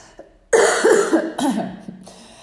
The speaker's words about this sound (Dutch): Sorry dat ik af en toe hoest, maar ik heb nog steeds een beetje last van mijn luchtweginfectie. Alweer, ja, alweer. Ehm, en nee, ik rook niet.